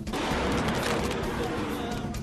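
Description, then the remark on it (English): A huge suicide truck bomb explodes as it careens toward a checkpoint in Ramadi, Iraq, roaring loud: a dense, harsh wall of rumbling, crackling noise that holds steady for a couple of seconds without fading. “It caught this suicide truck bomb as it careened toward a checkpoint. Before it could be interdicted, it blew up.”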